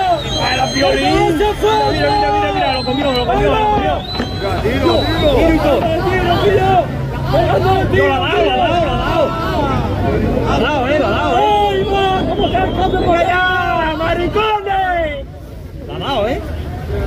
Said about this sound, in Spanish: la gente que lo está grabando desde la costa está jaleando a, los, eh, a los, narcotraficantes